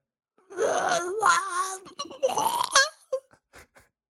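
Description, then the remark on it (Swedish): A person imitates a flamingo call with two loud, nasal wailing honks, the second shorter, followed by a few brief breathy clicks and a little quiet. “Jaha, du vet, det är så det låter liksom man har en flamingo utanför dörren.”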